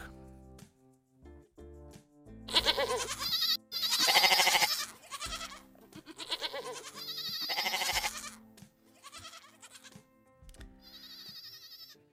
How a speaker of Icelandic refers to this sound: Það eru geitur sem að hér heyrast jarma.